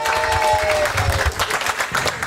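An audience bursts into loud, sustained applause for a singer's first live performance, dense clapping with a few cheers mixed in and a brief high-pitched whistle near the start.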